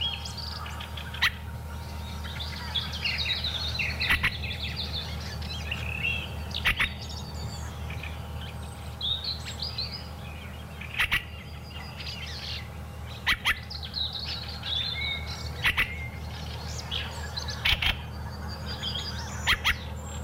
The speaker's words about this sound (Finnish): kuulee näin pitkään räkättyrastasta. Kyllä, se on varmaan siellä ihan mikin vieressä.